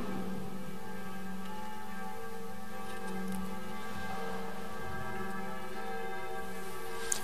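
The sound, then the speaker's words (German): Church bells ring steadily throughout as Catholic Christians celebrate in Busnang, their overlapping tones blending into a continuous, resonant peal, with no voices present. “Da gehen gleich die Glocken los, wenn ich diesen schönen Konfirmandenspruch zitiere.”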